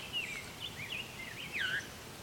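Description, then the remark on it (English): A veery sings, its airy, fluting notes spiraling downward in a couple of phrases over steady outdoor background noise, with no one talking. “This veery, veery is still going.”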